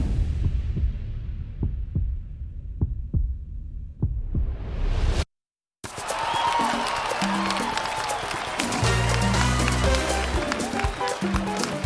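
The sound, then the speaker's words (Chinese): A heartbeat thumps in steady paired beats, deep and soft, for a few seconds before a brief silence gives way to a busy, bright mix of sound. “鹦鹉拍翅的扑扑声，啄木鸟敲击的扣扣声，他的鞋底传来笃笃的踢踏声，还有他自己带着鼓励节奏的心跳声。”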